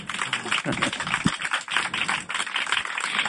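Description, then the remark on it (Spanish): A burst of audience applause during a radio programme made at a hospital, dense and steady clapping that fills the whole moment at moderate volume, with a faint voice or two briefly mixed in underneath. “por favor, un aplauso, vamos.”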